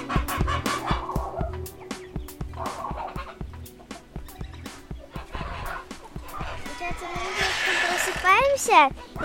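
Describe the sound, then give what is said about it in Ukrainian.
Farmyard geese and ducks calling in a busy, overlapping chorus of honks and quacks as their enclosure is opened for feeding and watering, with a louder, drawn-out honk near the end and voices mixed in underneath. “тогда мы идем открывать чудочку и гусей.”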